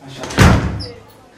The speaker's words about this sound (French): Je ferme la porte.